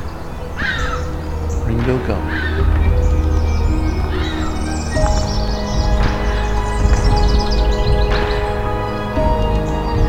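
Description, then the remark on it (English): Songs of a couple of black-throated green warblers rise from a busy dawn chorus, their thin buzzy phrases repeating among other chirps and harsher calls over a steady low rumble. “Black-throated green, a couple of black-throated green warblers.”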